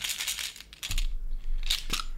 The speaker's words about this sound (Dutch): En daarvoor heb je allerlei dobbelstenen. Ik heb hier een bakje dobbelstenen.